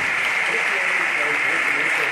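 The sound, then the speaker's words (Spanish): Dense, steady applause from a large audience giving a strong ovation to a proclamation speaker after his speech, a continuous wash of clapping with no pauses and no clear individual claps standing out. “Y de nuevo la fuerte ovación”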